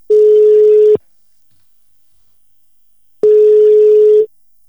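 A phone's ringback tone while a call to the caller's son connects: two long, steady mid-pitched beeps, each about a second, separated by a pause of silence, with no one speaking.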